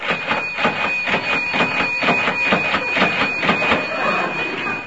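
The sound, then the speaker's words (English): A cash register in a bookshop is rung up over and over, 25 cents at a time: a fast run of mechanical clacks with a sustained high bell tone ringing through them, loud and steady, with no voices. “I ring it up 25 cents at a time.”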